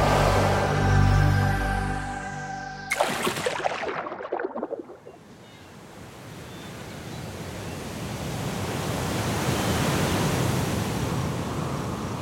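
ocean waves and surf

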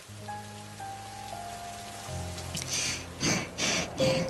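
rain falling

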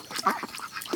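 ducks quacking

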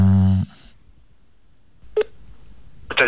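telephone dialing

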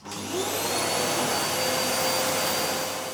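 vacuum cleaner running

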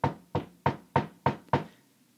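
knocking on a door

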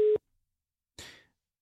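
telephone call ringing tone

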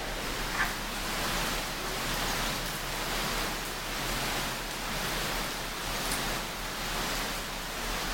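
heavy rain falling

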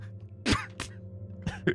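throat clearing

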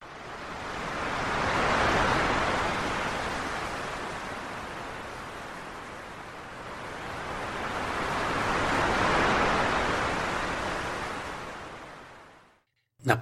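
sea waves

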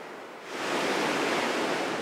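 ocean waves

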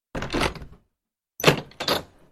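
door slamming shut

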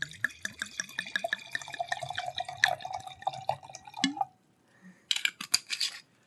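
liquid being poured

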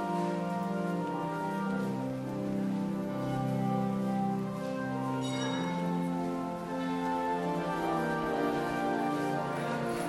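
church bells ringing

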